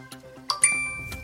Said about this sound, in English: Hear that? That was the sound of me literally buying something with my credit card.